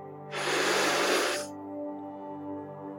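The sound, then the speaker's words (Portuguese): A single long, breathy inhalation swells up loud for about a second, then fades, leaving a low steady hum in the background. “Então, comigo Inale profundamente.”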